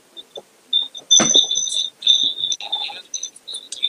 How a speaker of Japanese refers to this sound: まあ、こういう、ね、あの、iPhone の音をそのまんま、あの、MP3 プレイヤーに入れちゃったっていうのは一つちょっと面白いかなと